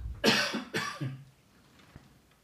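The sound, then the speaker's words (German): Two or three harsh coughs in quick succession, fairly loud, trailing into a quiet breathy pause with a faint click near the end. “Moment, ich muss husten.”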